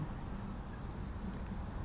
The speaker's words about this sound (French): la pluie commence à battre les pavés. Elle n'est pour l'instant pas très forte, néanmoins il y a de l'orage. Et si l'on en croit les jours précédents, la pluie va s'intensifier